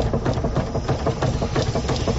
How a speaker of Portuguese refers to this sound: Mas que barulheira é essa nesse carro? É, é a suspensão que tá muito ruim.